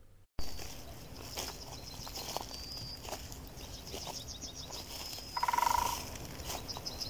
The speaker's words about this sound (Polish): Połączyłam te ptaki z krokami, kroki troszeczkę ściszyłam, zgłośniłam te ptaki i w ten sposób uzyskałam lepszy efekt. Tak jakbyśmy rzeczywiście chodzili po lesie i słychać i kroki, i ptaki. Posłuchajcie tego przykładu.